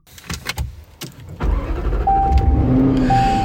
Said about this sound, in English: Uh, the V8's got a nice little growl to it. Sounds pretty racy.